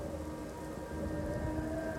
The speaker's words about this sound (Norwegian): Det er en mørk og stormfull natt. Igjen har jeg fortalt deg om høststormene på Island hvor ruskete de kan være. At det blåser og uler og knaker.